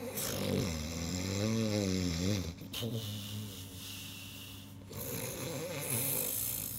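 A man snores loudly at night in a room where everyone is asleep, three long, rattling, drawn-out snores separated by brief pauses, with no talking.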